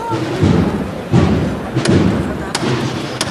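Three sharp, bright knocks from Ismael Vargas's hammer striking the Cachorro de Triana procession float to call its bearers, near the intersection with calle San Eloy. The knocks are spaced under a second apart and ring out over a steady murmur of crowd noise and low rumbling thuds.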